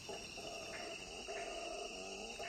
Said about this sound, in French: À la troisième minute de l'enregistrement, dit Krauss, un singe hurleur vocalise.